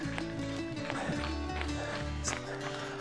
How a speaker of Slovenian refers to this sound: Evo, tečemo te prvo malo na mestu, tako, tako, tako. Tak. Da se navadimo na ta drobni korak, da čutimo pod seboj in se nagnemo s celim telesom malo naprej.